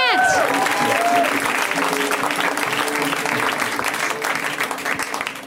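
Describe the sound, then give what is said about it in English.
An audience at an improv comedy show breaks into loud, sustained applause for a performer, a dense patter of clapping with a few rising whoops and cheers at the start, holding steady for several seconds before easing slightly at the end. “Give it up for”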